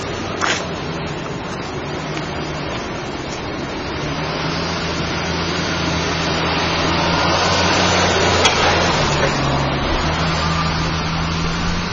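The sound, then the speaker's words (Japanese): A police pickup truck carrying barricades in its bed drives past, its broad engine and road roar building steadily over several seconds before easing slightly, with a low droning hum underneath and no voices. “今通ってた車はですねあのパトカーのこう荷台がトラックになってるやつですねバリケードみたいなの積んでましたね”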